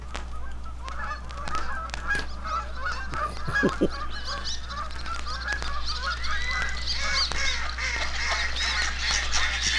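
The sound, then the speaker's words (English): A flock of ducks calls steadily at dawn at a duck blind, many overlapping honking quacks layered over a low constant hum, with no one speaking. “Because it says Dawn in a duck blind.”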